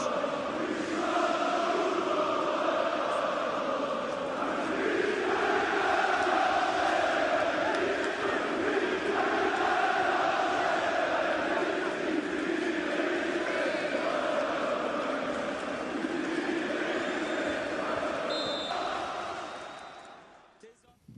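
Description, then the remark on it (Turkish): A huge stadium crowd of tens of thousands of Beşiktaş football fans chants steadily in unison at İnönü stadium in freezing cold weather, a loud, sustained roar of many voices that carries on for about twenty seconds before fading at the very end. “tezahüratların devam ettiği e, görüntülerde Beşiktaş sürümlerinin çoğunun büyük bir kısmının soyunduğunu, üstlerini çıkardığını ve havanın e, soğuk, dondurucu soğuk olduğunu e, tekrar hatırlatalım.”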